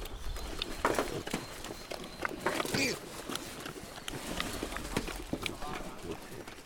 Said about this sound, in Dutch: Een moedervarken komt met haar biggen aangelopen. Ze weten dat het voer eraan komt. Ze laten het zich goed smaken.